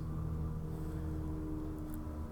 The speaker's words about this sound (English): okay, that sounds like a plane, but it sounds like it's like a one engine plane that's 20 feet uh, uh, over my roof.